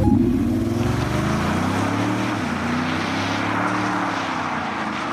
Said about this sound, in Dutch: gaat dit geluid verdwijnen? Ja. De dieselmotor zit in het verdomhoekje.